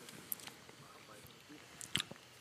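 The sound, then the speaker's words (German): Quiet chewing of a whole pepperoni in one bite, with soft wet mouth sounds and two sharp crunchy bursts, one early and a louder one near the end. “Direkt die ganze ja. Pepperoni auf einen Bissen.”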